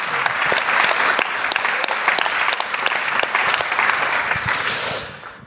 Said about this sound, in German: Ähm, ja, genau, Applaus